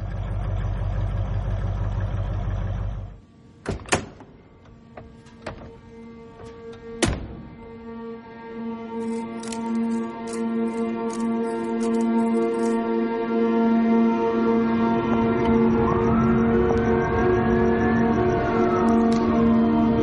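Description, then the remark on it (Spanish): A loud vehicle engine roar cuts off abruptly, followed by two sharp thuds a few seconds apart as a van hits a person, then the van brakes and its engine idles steadily with a tone that rises and falls. “Una furgoneta atropella a Matías. El vehículo frena.”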